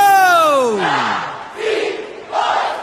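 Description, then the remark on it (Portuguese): Corinthians supporters shout a battle cry: one loud voice lets out a long, falling yell, then a mass of voices roars back in three surging bursts. “Solta o grito!”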